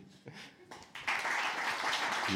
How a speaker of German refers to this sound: So, stellt euch vor, so J.K. Rowling hat ein neues Harry Potter Buch rausgebracht. Die hat er jetzt ja aber diesen Skandal und ihr mögt das eigentlich nicht, aber ihr findet Harry Potter schon auch gut. So, wie würdet ihr klatschen?